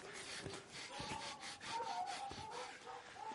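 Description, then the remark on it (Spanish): Hands scrape and scoop through loose soil in repeated rough, gritty strokes, fairly quiet, with a faint steady tone lingering in the background. “Cava con las manos.”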